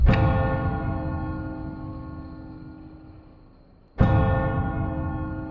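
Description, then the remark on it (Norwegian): A deep clock bell in a house strikes midnight, tolling twice about four seconds apart, each loud strike ringing out in a long, shimmering hum that slowly fades. No voices are heard. “Hør, tiden nærmer seg. Klokken begynte å slå.”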